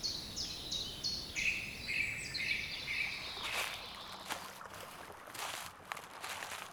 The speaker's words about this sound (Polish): Jeśli dźwiękowo spotykasz się ze mną nie od dziś, to już znasz strumień, nad który idziemy. Tylko wtedy leżał tu śnieg, a dziś pod nogami szeleszczą nam suche, zeszłoroczne liście.